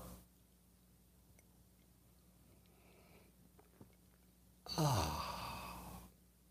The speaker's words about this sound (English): How about the interim interstitial simultaneous sip that has never been a thing but could become a thing because it's so awesome? Get ready for the makeup simultaneous sip. Go.